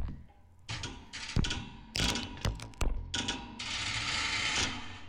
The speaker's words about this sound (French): Zimzam longe maintenant les rails et écoute de toutes ses petites oreilles. Les rails font une chanson de métal.